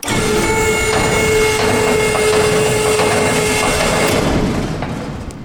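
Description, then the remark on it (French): An observatory dome shutter rolls closed in Mistral wind: a steady mechanical rumble with a grinding, rolling drone and a sustained tonal whine, running continuously for several seconds before easing off at the end. “Ah bah, c'est pour ça qu'il vaut peut-être mieux qu'on ferme le, le simi avant de partir. Eh bien, on va fermer.”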